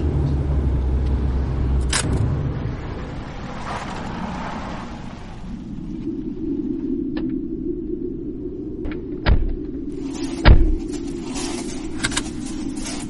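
A car rolls slowly along a rough road that grows ever narrower beside a wetland with muddy edges, its engine a steady low rumble, with a few sharp knocks and rattles from bumps as it goes.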